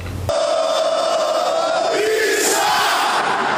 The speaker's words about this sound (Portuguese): Os gritos de bicha durante a cobrança do tiro de meta do time adversário sempre foram muito comuns, até que passaram a ser punidos.